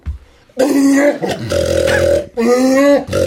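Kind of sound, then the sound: human body sound, loud burp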